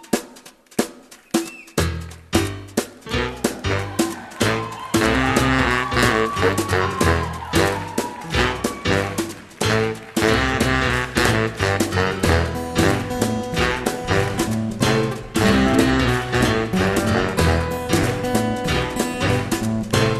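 A live French chanson band plays an upbeat instrumental stretch, steady percussive beats driving a full, loud arrangement that stays dense throughout, with no singing yet.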